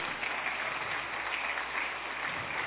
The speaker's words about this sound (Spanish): Denle un aplauso al Señor, hombre.